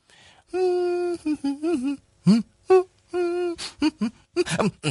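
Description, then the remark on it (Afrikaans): A person whistles and warbles in imitation of birdsong, a string of bright sustained tones, trills and quick chirps, fairly loud, with short pauses between phrases. “Weet julle, soms sing ek sommer so saam met hulle.”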